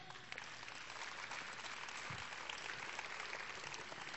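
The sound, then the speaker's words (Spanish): A crowd applauds steadily for about four seconds, a dense wash of many hands clapping at an even, sustained level with no voices breaking through. “Dale un aplauso por eso.”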